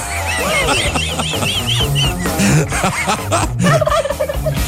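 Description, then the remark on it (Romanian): A flock of wild turkeys in a town in the USA gobbling loudly and repeatedly, overlapping rapid warbling calls layered densely with no pauses, clear. “vreau să vă povestim despre orașul ăsta din SUA, în care curcani, un câr de curcani sălbatici fac mizerie și produc pag- pagube în grădin și, uh, practic, uh, um, umblă în haide.”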